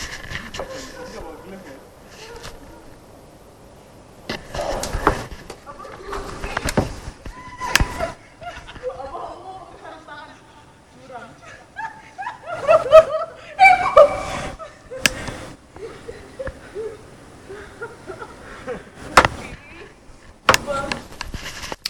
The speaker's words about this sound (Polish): E, pierwsza w nocy w Krakowie. Widzę trójkę ludzi, którzy biegają i rzucają się śnieżkami. Posłuchajcie.